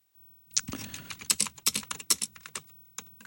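Rapid typing on an Amiga 1000 computer keyboard, a crisp run of clicky keystrokes in an uneven rhythm with a few brief pauses, no voices.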